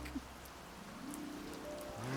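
Steady rain falls throughout, a soft, even patter and hiss at moderate level, with a faint low hum rising near the end.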